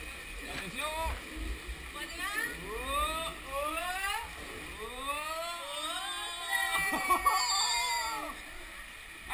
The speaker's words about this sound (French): Un toboggan C'est le bruit, ça aurait pu être le paquito, puisqu'il faut aussi lever les bras. Mais non, c'est le bruit du toboggan. Ici, c'était euh, à dans un espèce de camp de vacances un peu euh, diabolique.